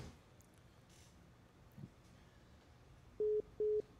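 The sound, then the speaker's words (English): A dead phone line on a call-in plays a steady electronic beep tone in short, evenly spaced pulses, loud and clear after a few seconds of faint line hiss, with no one speaking. “Oh, he didn't pay your bill.”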